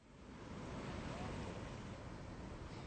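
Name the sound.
sea waves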